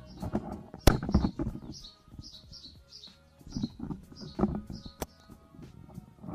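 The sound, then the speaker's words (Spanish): Birds chirp and sing in a garden, short high calls repeating steadily throughout, with occasional low rustles and knocks and no one talking. “A ver, estáis escuchando a los pájaros.”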